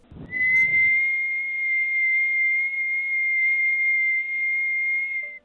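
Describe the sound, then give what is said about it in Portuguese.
A long, thin whistle heard from afar halfway up the Morro de Santo Antônio holds one steady high pitch for about five seconds after a brief low rumble at the start, sounding distant and unbroken before it stops abruptly. “Quando Domingos estava subindo lá pela metade do morro, ele ouviu um assovio longe, um assovio longo e fino.”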